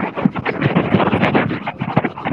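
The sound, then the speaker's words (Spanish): Muffled rubbing and scratching against a microphone while a cellphone is being cleaned, a continuous rough friction noise with uneven bursts, with no speech. “Perdón, es que estaba limpiando mi celular.”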